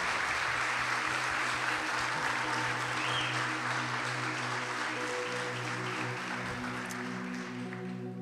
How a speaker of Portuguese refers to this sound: A palavra é gratidão. Uma salva de palmas para esse casal especial.